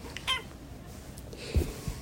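A cat gives one short meow near the start, followed by a soft low thump against a quiet background, with no one speaking.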